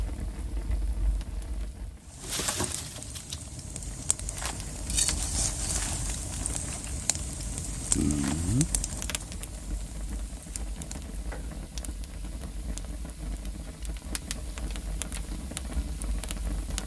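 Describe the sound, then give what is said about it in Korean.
A well-lit campfire of firewood burns steadily, with dense crackling and sharp pops scattered over a constant hiss; a louder burst of snapping comes early on. No one speaks. “야, 이 소리는요. 아주 잘 붙어서 타는 소리입니다.”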